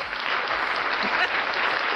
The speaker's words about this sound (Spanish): ¡Ay, aplaudió! ¡Eh! Maravilloso.